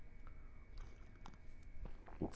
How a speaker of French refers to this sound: Et ça mérite une petite gorgée de thé, excusez-moi.